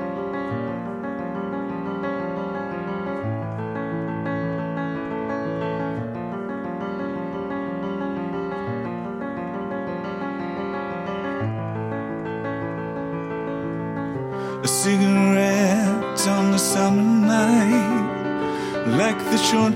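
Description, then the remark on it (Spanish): A rock song plays steadily with layered guitars and bass, then grows fuller and louder near the end as a male lead vocal comes in over the band. “es …, una versión con la voz de … de …”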